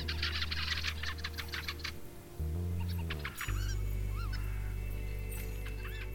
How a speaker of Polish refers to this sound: Nazwa kwiczoła pochodzi właśnie od jego dziwnego głosu, bo kwiczą, e, w pewnym sensie pokwikuje. Można powiedzieć, że ten głos rzeczywiście przypomina kwiczenie.